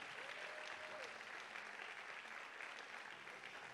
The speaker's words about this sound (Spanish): Vamos, dale tu mejor aplauso al Señor.